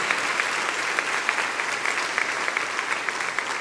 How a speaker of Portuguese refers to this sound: Pode aplaudir bem forte o Senhor Jesus, que Ele merece mesmo.